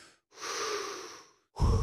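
A long, steady breath pushed out through the mouth, an airy exhale lasting about a second that empties all the air from the lungs, followed by the start of another breathy sound.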